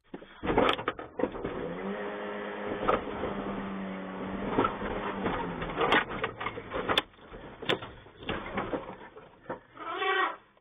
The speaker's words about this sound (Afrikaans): luister gou hoe dit klink as 'n olifantbil sy tande in jou bakkie se enjinkap inslaan.